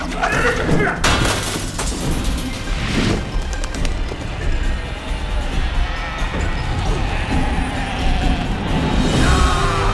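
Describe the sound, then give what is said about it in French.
A door being smashed in: heavy splintering crashes and thuds, with two loud blows standing out early, over a constant dense rumble of noise and indistinct voices. “La porte est brisée, pas de quartier”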